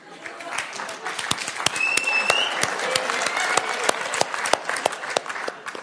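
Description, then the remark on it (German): An audience applauds steadily, many hands clapping in a dense, continuous patter with sharp individual claps standing out, holding at a fairly even level throughout. “Aber das zum Beispiel ist auch so ein gefälliger Applaus.”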